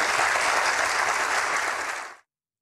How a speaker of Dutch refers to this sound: En weer dat applaus